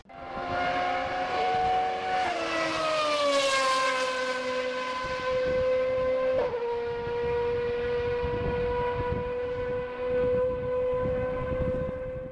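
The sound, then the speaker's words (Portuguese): A race car engine from an HSV010 GT roars loudly and without a break, holding a high, whining pitch that drops slightly twice as the revs shift. There is no talking. “Vou ver se consigo colocar o ronco agora, então eu vou paralisar aqui.”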